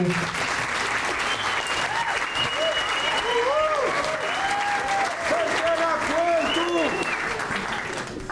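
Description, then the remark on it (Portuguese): Steady, dense applause from an audience fills the whole stretch, loud, with scattered whoops and cheering voices rising over the clapping. “Uma salva de palmas”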